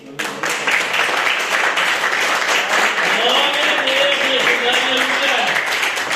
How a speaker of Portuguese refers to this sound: Essa palavra que o Senhor colocou no meu coração e as palmas que glorifiquem ao Rei dos Reis.